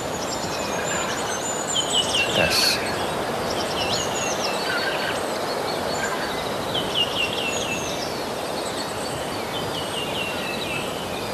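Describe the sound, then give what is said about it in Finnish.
A goldcrest sings a thin, very high-pitched song in repeated short phrases over steady outdoor forest ambience, picked up by a forest microphone during the morning dawn chorus, with a brief spoken word near the start. “Kuunnellaan vähän sitä metsämikkiä. Siellä se hippiäinen on nimittäin.”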